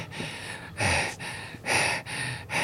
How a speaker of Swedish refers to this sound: Du känner hon börjar andas lite häftigt.